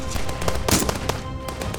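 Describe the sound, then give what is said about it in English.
Bursts of gunfire crackle rapidly and irregularly, sharp loud shots piling over one another in a dense, continuous volley against a noisy background, with no one speaking. “they carried him deeper into camp, with bullets firing in all directions over their heads.”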